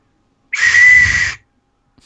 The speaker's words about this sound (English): uh, it's it's it's a Wolfenstein 2 whistle.